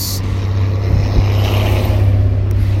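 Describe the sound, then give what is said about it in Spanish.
A car passing by on the street, its engine rumbling loudly and steadily, a low droning hum with road noise over it, holding constant for the whole few seconds with no one speaking. “si a veces dejamos un momento en silencio porque pues queremos tratar de hablar un ratito eh, y aprovechar cuando no pase ningún carro”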